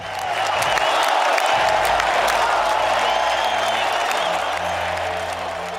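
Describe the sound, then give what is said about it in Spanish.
Loud, sustained audience applause, an ovation for Fernando Adrián, winner of a contest broadcast by Telemadrid: a dense steady roar of many hands clapping for several seconds, with crowd voices and cheers mixed in and no pause in the ovation. “Aunque sí ha sido un éxito el certamen, retransmitido por Telemadrid con un ganador redescubierto, Fernando Adrián, que recoja también esta ovación desde Onda Rueda.”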